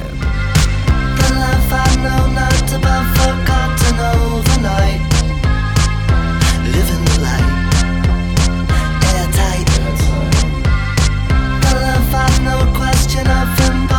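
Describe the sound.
A loud rock song plays from a recording, with steady pounding drums, driving guitars and bass, and a sung vocal riding on top throughout.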